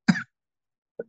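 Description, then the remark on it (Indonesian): A sharp cough bursts out, followed after a brief pause by a second, smaller and quieter cough. No talking. “bentar batuk”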